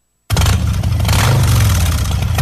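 A motorcycle engine roars loudly after a brief silence, its deep rumble rising in pitch as it revs, then holding steady to the end.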